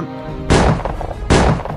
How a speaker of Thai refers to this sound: ลุง ดังอีกสองนัดแล้วลุง